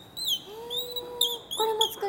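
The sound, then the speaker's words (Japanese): A bird call device is played in several short, bright chirping bursts that mimic birdsong, varied in strength and pitch so as to resonate with birds: squeaky whistled phrases with a few lower tones underneath, fairly clear, with no talking. “あの強弱つけて少しあの声の高さを変えたりとかしまして、えー、まあ、鳥のね鳥と共鳴するような形で、はい、えこれは実際に使い道としては、はい、森でこう使うと鳥が鳴き返したりとかもあるんですかそうですねうまくやりますと、えー、あの返事返してくれると思います。”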